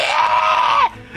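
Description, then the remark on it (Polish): A woman's high, sustained scream, performed by a voice as the story character Irina screaming in the background, holds steady and loud for nearly a second before cutting off abruptly, then brief quiet. No talking alongside it. “Słyszycie krzyk Iriny, która gdzieś tam w tle drze się.”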